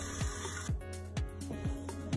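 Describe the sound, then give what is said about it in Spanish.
An electric mixer, turned down to a lower speed, beats meringue of egg whites and syrup until it cools completely: a steady, moderately loud motor whir with a rhythmic swoosh or scrape roughly every half second as the beaters circle the bowl. No one speaks. “Una vez que está integrada la totalidad del almíbar, voy a bajar la intensidad de la batidora y voy a batir hasta que se enfríe por completo.”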